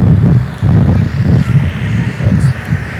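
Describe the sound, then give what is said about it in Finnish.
Loud gusts of wind buffet the microphone, producing a heavy, rumbling roar that surges and dips in uneven pulses for several seconds, with no voices present. “Ui, nyt tuuli.”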